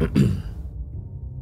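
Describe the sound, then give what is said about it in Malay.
A man's voice imitates a throat clearing, one short, gruff, deep rasp that fades out quickly, followed by quiet low rumble with no speech. “Aku terdengar ada satu suara macam Ada suara lelaki yang tengah berdehem masa tu”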